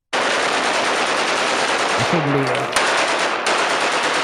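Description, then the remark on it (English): Loud, relentless gunfire fills the whole stretch, a dense burst of rapid shots like automatic weapons, with one sharper crack standing out and a brief muffled voice buried beneath it. “It was a little muffled under the gunshots, but I'm pretty sure someone said, "I fuck Santa.”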